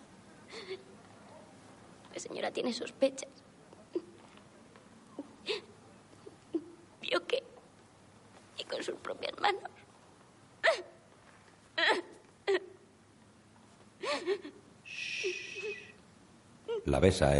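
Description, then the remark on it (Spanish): A woman, Inés, her hair roughly cropped, cries and sobs sitting on a chair in a castle's hunting lodge, in short, breathy bursts, with hiccuping catches of breath and shaky gasps recurring irregularly throughout, without any words spoken. “Inés, con el pelo cortado a trasquilones, llora en una silla.”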